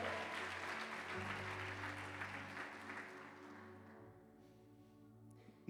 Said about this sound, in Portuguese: Dê um brado ao Senhor e adore e aplaudam neste lugar.